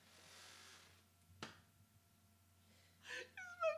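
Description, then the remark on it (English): A sharp, abrupt hiccup, followed a moment later by another hiccup and a short voiced gasp, with no talking. “The hiccups just hit me hard.”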